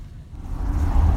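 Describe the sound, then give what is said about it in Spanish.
Riding in the open bed of a pickup truck: a steady low road-and-engine rumble with wind noise, growing louder as the truck picks up speed, with no one talking. “a little recording of us in the boot of the, or in the bed of the pickup truck, just so you can experience it along with us.”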